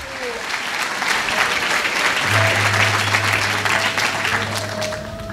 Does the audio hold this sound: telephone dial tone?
no